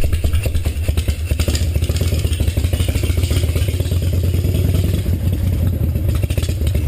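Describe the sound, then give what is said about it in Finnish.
A moped engine runs as its rider leaves on it, with a steady buzzing, rattling drone that holds at the same loudness throughout. “Näin Mika menee mopollansa pois.”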